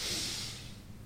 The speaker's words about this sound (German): … schnauft tief durch die Nase ein.